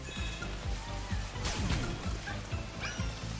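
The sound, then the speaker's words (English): Steady patter of rain sounds played from a game controller's speaker, with quick repeated drips and a brief heavier rush of rain in the middle, fairly loud and with no voices. “But it's the added hook of rain sounds emanating from the speaker that really made me think, oh no, I need to get out of this rain.”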